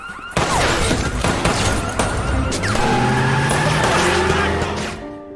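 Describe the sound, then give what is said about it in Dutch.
A loud, chaotic car chase from a Hollywood film: engines roar, tires screech in rising and falling whines, and sharp bangs and crashing impacts punctuate the dense noise throughout. “Niet toevallig zijn de twee populairste ingrediënten uit Hollywoodfilms schietpartijen en achtervolgingen met de auto.”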